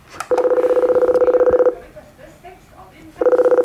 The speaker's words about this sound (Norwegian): Da står jeg foran en boks, en sølvfarget aluminiumsboks, hvor det står en lapp, eller en knapp hvor det står 'call', så nå trykker jeg på den.